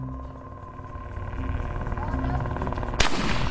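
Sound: gunshot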